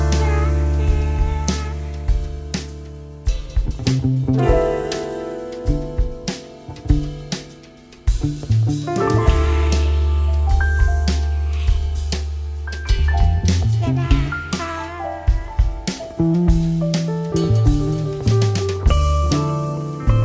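A Brazilian song plays at steady, full volume, a male voice singing over warm instrumental backing with a deep bass line throughout, continuous with no pauses or talking.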